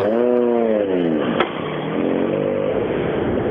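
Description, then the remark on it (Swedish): Many rally cars arriving at the same time in the rally forests, engines revving hard, pitch sweeping up and down as they shift and accelerate, with a sharp click midway and a continuous loud roar throughout; no one speaks. “Ja, det var många bilar som kom in på en och ja. samma gång här.”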